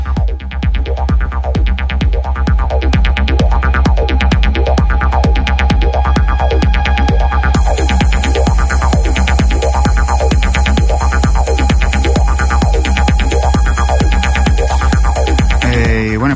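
A loud, steady German techno track with a pounding four-on-the-floor kick, repeating sweeping synth patterns, and a bright hi-hat layer that joins midway and drives on without vocals.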